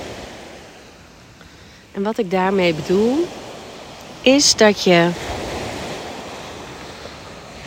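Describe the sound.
Steady surf washes continuously onto a shore on Crete, a broad hissing roar that rises and falls gently, with a calm voice speaking softly over it in two short phrases during a seaside meditation.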